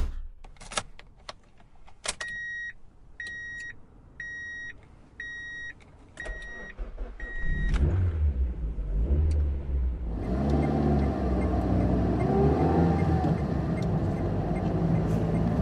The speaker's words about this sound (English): had never owned a car before, and as I put my new purchase in gear